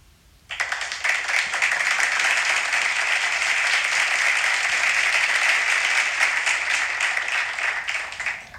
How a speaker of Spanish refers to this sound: antes, antes un pequeño silencio porque vamos a aplaudir a los campeones del concurso sobre Canfranc que hacíamos la semana pasada. ¿Qué os parece el plan? Venga, un aplauso para todos los que habéis participado